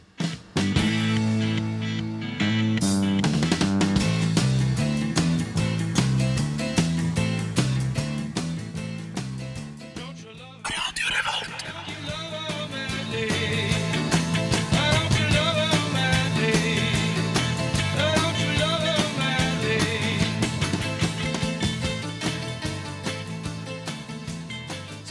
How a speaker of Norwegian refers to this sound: vi skal spille noe mer musikk. Det her er … med …